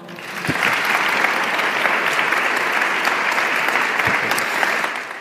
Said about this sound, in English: So please give a round, of applause to our three panelists before we start the panel.